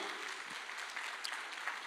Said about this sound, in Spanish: Dele palmas fuerte al Señor, hermano.